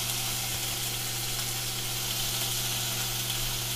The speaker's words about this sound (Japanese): 焼肉風にして、もう本当に皿に盛り付けず焼けたらもうその場で食うっていう、えー、本当簡単なスタイルで、いっちゃいます。